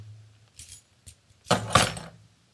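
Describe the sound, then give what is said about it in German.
A teacher's bunch of keys is slammed down onto a table in a school classroom, a sharp metallic crash and jangle, preceded by a couple of small clinks and settling into a brief rattle. “der hatte noch die Oldschool-Fassung mit dem Schlüsselbund.”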